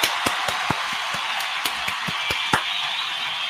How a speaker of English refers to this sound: Let me go ahead find a round of applause and give to y'all for sticking around and being so dope on this Friday.